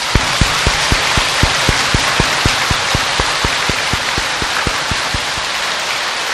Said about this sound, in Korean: 여러분은 박수로서 환영을 해 주십시오.